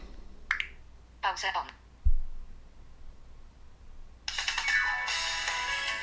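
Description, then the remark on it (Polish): A few short electronic chirps and a low thump, then bright, tinny music from an internet radio station, opened in a computer program, suddenly starts playing for the last couple of seconds, fairly loud and compressed. “Jak słyszymy, nie ma problemu, aby nawet słuchać sobie radia internetowego w ten sposób.”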